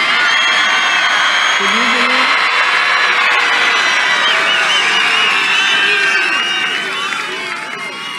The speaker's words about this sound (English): Do you hear that crowd back there? Can you believe it?